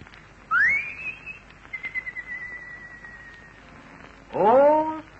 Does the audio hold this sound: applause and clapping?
no